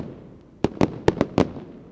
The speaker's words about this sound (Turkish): İstiklal Marşı'nı okudular ve ardından da havai fişek gösterisi başladı. Türkiye Büyük Millet Meclisi'nin hemen arkasından atılıyor.